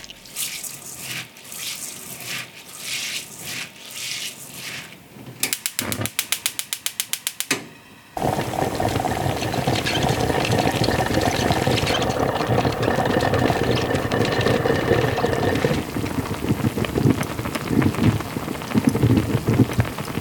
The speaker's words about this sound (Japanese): 今朝は土鍋でご飯を炊くいい音